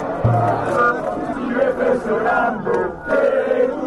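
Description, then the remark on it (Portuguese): A large crowd of football fans chants together in loud, sustained unison a well-known antifascist resistance song written by Felice Cascione in September 1943, many voices blending into a rough, rhythmic roar that swells and dips. “Então vamos lá, vamos ouvir primeiro a versão da torcida e depois as duas outras.”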